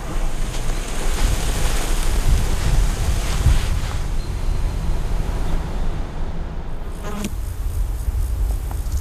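Sand trickles and slides down a dune slope in a steady, crisp hiss, continuous for the whole stretch, with a brief grainy surge near the end.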